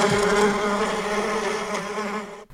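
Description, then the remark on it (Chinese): Steady, dense buzzing of bees beside a walking trail, a continuous droning hum with layered harmonics that holds fairly loud for over two seconds before cutting off abruptly. No voices. “别说蜜蜂了，我听到它的声音了，我们快走吧。”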